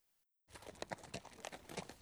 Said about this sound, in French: Le trottinement d'un âne attire l'attention du blessé.